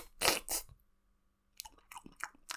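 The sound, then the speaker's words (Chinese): Loud, wet chewing and smacking of braised snacks: two quick crunchy bursts, a brief pause, then a run of several sharper smacking chews, with no talking. “那有些人吃东西就很大声，大家应该知道的。”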